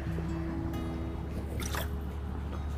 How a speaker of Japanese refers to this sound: はあ、ちょっと水飲もう。